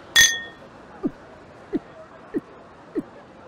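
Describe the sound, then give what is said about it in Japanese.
Glasses clink together once in a toast, a bright, close chime with a short ringing tail, followed by four soft, evenly spaced low thuds. “それじゃ、お前の新しい門出を祝して、乾杯”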